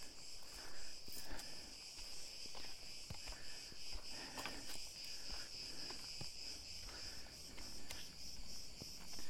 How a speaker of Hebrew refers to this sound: את חלקם אפשר לשמוע. נגיד, אתם שומעים פה את הצרצרים?